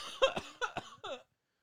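A quick run of fairly loud coughs, four or five sharp bursts in about a second, the last one trailing off with a throaty voiced tail before silence.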